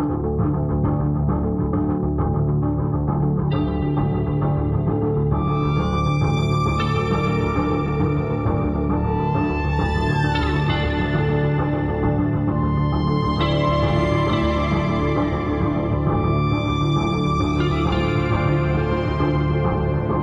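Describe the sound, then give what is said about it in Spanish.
A metal song, the advance single and opening track of a band's new album due out in February 2021, plays loud and dense, heavy distorted guitars grinding steadily with bright, ringing high layers swelling in at intervals; no voice comes in over the twenty seconds. “pero nosotros tenemos ya el sencillo de adelanto, el tema que abrirá ese nuevo álbum”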